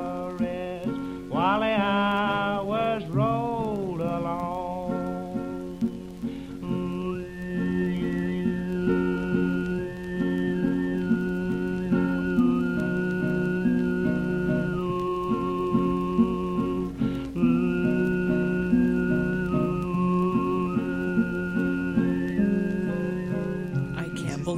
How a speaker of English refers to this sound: He's humming low, and there's another note that appears up above. It's the note inside the note. So he's singing two at the same time.